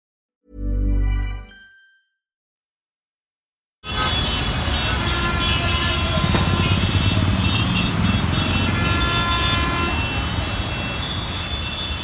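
A single loud, brassy car horn blast sounds alone, followed by a short silence and then a steady, dense roar of traffic that continues to the end.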